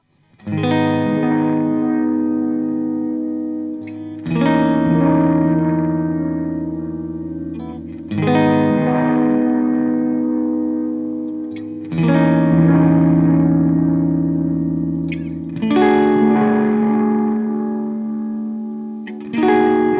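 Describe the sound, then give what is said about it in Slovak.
Electric guitar chords struck roughly every four seconds through a delay effect, demonstrating digital and analog delay, each one ringing out with trailing echoes before the next strum; fairly loud, with no voices. “Rozdiel medzi nimi, ak ste počuli, tak bol taký, že digitálny delay vám zoberie signál a zopakuje vám ho v pôvodnej kvalite, respektíve zachová výšky aj basy.”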